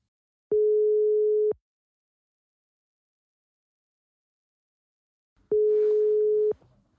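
Two long, steady electronic telephone ringback tones, each about a second, separated by a four-second silence; the second tone carries faint background noise from the line.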